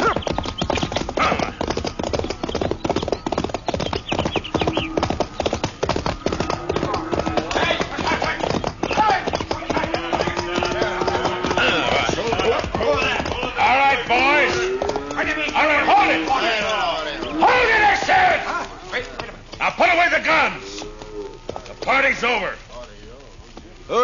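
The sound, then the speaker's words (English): A dense, continuous clatter of the hooves of 50 or 60 riders' horses pounding along at a gallop, steady and loud throughout, with a horse whinnying and voices calling out over the din. “Must be 50 or 60 riders facing each other across that fence.”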